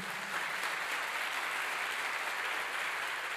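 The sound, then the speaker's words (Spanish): An audience applauds steadily, a dense, continuous wash of many hands clapping at an even level throughout, with no voices standing out above it. “Quiero que le dé un fuerte aplauso al Señor.”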